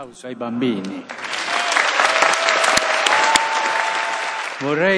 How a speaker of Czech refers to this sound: Dnes se v těchto krajích slaví Den dětí. Pozdravme je silným potleskem.